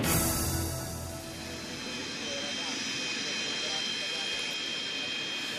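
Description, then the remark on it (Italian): A steady roar of Falcon jet aircraft engines with a sustained high-pitched whine running throughout, loudest at the start and then holding level; faint voices may sit beneath the noise. It is the plane bringing two freed Italian young women back to Italy. “Quello che sentiamo in sottofondo è il suono dei motori dell'aereo che ha riportato in Italia”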